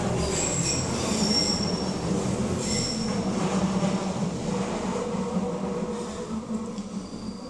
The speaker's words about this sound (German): Die S-Bahn fährt gerade vorbei, sorry Jungs.